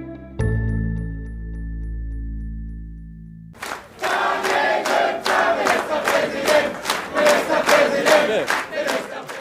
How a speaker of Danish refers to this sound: Der var jubel hos CDU i Slesvig-Holsten.